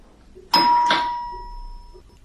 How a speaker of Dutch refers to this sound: Even later ging de bel.